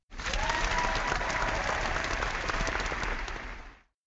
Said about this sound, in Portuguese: Aplausos!